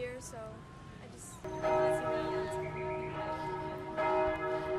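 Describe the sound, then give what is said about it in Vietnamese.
Church bells in Vietnam ring out loudly at Christmas time with rich, sustained tones, struck again about every couple of seconds so the chimes overlap and hum, while faint voices murmur in the background. “tiếng chuông nhà thờ sắp điểm báo hiệu một mùa Giáng sinh hạnh phúc an lành đang tới với mọi gia đình Việt Nam và thế giới.”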